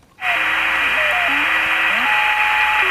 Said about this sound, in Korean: 갑자기 무슨 소린가 하셨죠? 이게 저 라디오 지금 잡음이 나오는 소리예요. 이렇게 채널 돌리다 보면 튜닝할 때 이렇게 나오는 소리예요. 그 소리입니다. 이게 보물 소리입니다. 뭐 이제는 안 불러도 자동으로 나오네요. 라디오 음, 튜닝 잡음입니다.